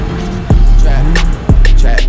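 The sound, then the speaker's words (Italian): A car engine cranks and catches, then revs up and down with a low, steady rumble underneath and a second sharp burst partway through, fairly loud. “accendi un attimo la macchina.”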